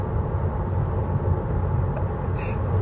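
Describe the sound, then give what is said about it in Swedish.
Steady low rumble of a car's interior while driving on the way up to Stjärnsund, a continuous road and engine drone that stays even in level throughout, with no voices. “Jag sitter i en bil på väg upp till Stjärnsund på någonting”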